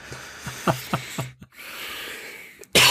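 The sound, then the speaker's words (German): A rapid string of five or six short, harsh coughs, followed by a long raspy, wheezing breath in, then one more loud burst at the end. “Gott, habe ich große Ausschläge gehabt bei dem Husten. Ich entschuldige mich dass ich euch oh, die Ohren aushuste.”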